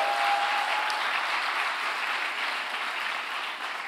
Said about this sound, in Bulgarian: Ако ръкопляски, защо не дадеш на Бога едно мощно дарение на ръкопляскане?